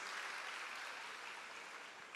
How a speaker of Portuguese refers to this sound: Aplausos aí o pessoal lá do House Mix.